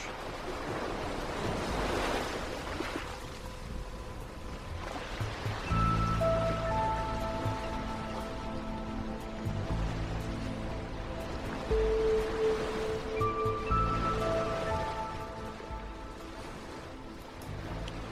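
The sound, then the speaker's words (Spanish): Mediterranean Sea waves wash onto the shore of the island of Mallorca, Spain, in slow, rolling surges, with a gentle melodic tune entering partway through and playing over the steady surf. No one speaks. “emitimos desde la isla de Mallorca en España, rodeados del mar Mediterráneo azul y su brisa marina.”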